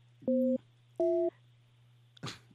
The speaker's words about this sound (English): this dial tone. definitely 1950 payphone. Uh, some kid going, "What's that beeping, mama?"